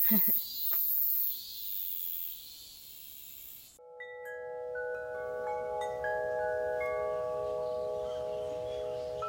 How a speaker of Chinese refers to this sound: 刚刚听到蝉声，哇，就表示是的，夏天真的真的真的是来了。